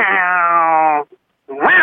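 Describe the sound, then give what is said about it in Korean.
A person imitates a wild, stray cat wary of people: a long, steady, tense droning growl held for about a second, a brief pause, then a sharp rising hiss-like yowl, loud. “사람을 경계하는 고양이 들어볼게요.”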